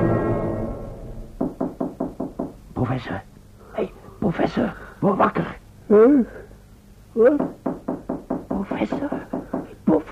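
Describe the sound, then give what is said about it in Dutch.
Rapid bursts of sharp knocking on a door, several quick raps in a row repeated in clusters, fairly loud, with brief voices and exclamations breaking in between. “Er wordt geklopt.”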